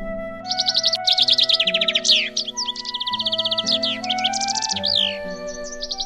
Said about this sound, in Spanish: En este breve patio de naranjos se concentra el perfume de los siglos y cantan todos los pájaros del mundo.